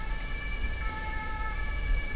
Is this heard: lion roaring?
no